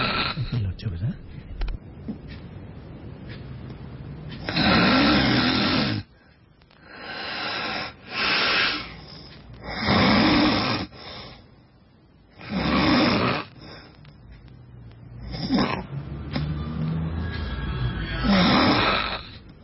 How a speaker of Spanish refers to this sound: lo grabó y ella tiene el sueño súper ligero y él ni sabe lo terrible que ronca.